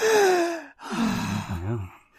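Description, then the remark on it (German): A person takes one loud, deep breath in and then lets it out in a long, slightly voiced sigh, with no talking. “So richtig ja. ein und aus.”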